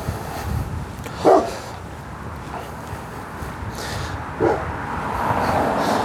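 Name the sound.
dog barking and whimpering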